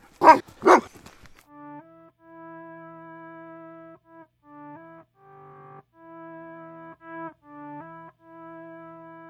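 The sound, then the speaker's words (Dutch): A dog barks twice, loud, then a long stretch of steady, buzzy electronic tones follows in short held notes, changing pitch in a choppy sequence. “Als je over kanker begint, gaan ze blaffen.”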